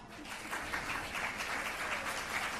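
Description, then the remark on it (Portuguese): A crowd applauds steadily, a dense, even wash of many hands clapping at once with no single claps standing out, sustained at a fairly constant level throughout. “Eu não falei para vocês baterem palmas para mim, não.”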